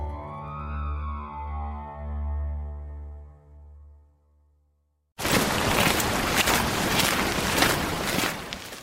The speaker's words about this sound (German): Der Weg führt durch den südlichen Pfälzerwald steil bergan. Wind rauscht in den Bäumen, die Erde ist feucht und rutschig.